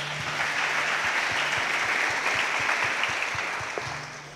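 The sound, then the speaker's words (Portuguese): A crowd applauds steadily, a dense wash of clapping that holds for several seconds and eases off slightly at the end, with a low hum underneath and no one speaking. “Você pode aplaudir e ficar de pé?”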